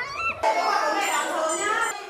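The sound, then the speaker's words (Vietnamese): Young children's high-pitched voices fill a kindergarten classroom in Hoài Đức district, Vietnam, in the morning, with tearful wailing and sing-song cries overlapping continuously for a couple of seconds, fairly loud. “trường mầm non mùa 10 tháng 10 huyện Hoài Đức bắt đầu bằng tiếng cười, tiếng ca nhưng cũng bằng cả tiếng khóc.”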